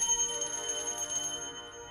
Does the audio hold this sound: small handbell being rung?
yes